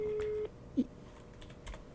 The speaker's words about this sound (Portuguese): olha lá, não atendem. Vou ter um terceiro telefone, vamos lá.